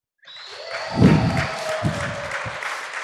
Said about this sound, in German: Deswegen würde ich doch bitten, das äh, Publikum noch mal kurz zu applaudieren, einfach mal als Beweis dafür, dass hier wirklich Menschen sitzen.